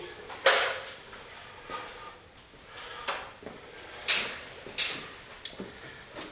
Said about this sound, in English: Next thing we're going to do is put the, actually before we put the top panel back on, we're going to put the soap dispenser in, the soap dispenser drawer. Goes into the housing.